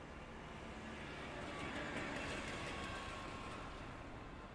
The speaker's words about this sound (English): but I'm going to put a little street sound under it to imagine it being read while marching down the streets of Galveston, Texas, except now it is Rotterdam, the Netherlands.